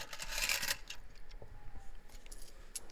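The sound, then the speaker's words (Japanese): Coins from changing money jingle and clatter together, a bright metallic rush at first followed by scattered lighter clinks, fairly quiet with no voices. “両替、両替してコインの音で。”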